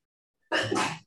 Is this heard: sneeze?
yes